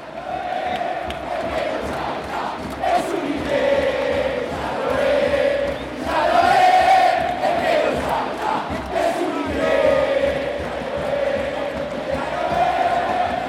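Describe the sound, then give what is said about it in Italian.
A large stadium crowd of San Lorenzo football fans in the barrio de Boedo roars and chants continuously, with sustained mid-pitched vocal swells rising and falling in waves, loud and dense throughout, punctuated by scattered shouts and whistles. “Prima che la gloriosa Butteler, la tifoseria del San Lorenzo, faccia il suo ingresso, i veterani sfilano facendo un giro di campo.”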